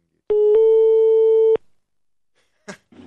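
A telephone ringback tone sounds once as a call is placed to a mobile phone, a steady loud electronic beep lasting about a second, followed by silence, a short clicking rustle, and faint handling noise.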